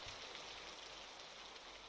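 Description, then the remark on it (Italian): Steady rain pours down in a dense, continuous hiss, evenly loud throughout with no pauses and no voices. “togliamoci da questa pioggia”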